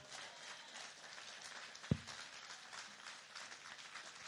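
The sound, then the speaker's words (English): A church audience claps together in a steady, dense patter of many hands that fills the room for several seconds, with one sharper thump partway through and no voices. “And now let's get the church clapping.”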